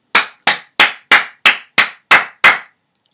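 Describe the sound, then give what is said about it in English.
Eight loud, sharp hand claps on a radio broadcast, applauding a speech against government measures, in a steady, even rhythm, each a crisp slap with a short ringing tail, followed by a brief silence. No one speaks. “I don't know how clapping comes out over people's radios, but I just I loved every golden word of that.”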